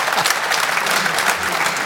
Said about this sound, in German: Äh, erstmal Applaus vielleicht.